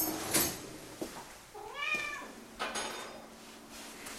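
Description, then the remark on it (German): A cat lets out a single drawn-out meow that rises and falls in pitch, moderately loud, with a few soft clicks and household noises around it. “Ja, die Katze ist auch schon wach.”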